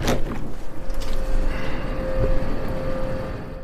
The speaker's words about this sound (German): da hört man vielleicht schon die Klimaanlage, die hier vorm Fenster ist, die aber nicht für mein Zimmer ist.